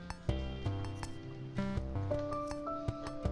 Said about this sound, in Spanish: Perdón, estoy comiendo.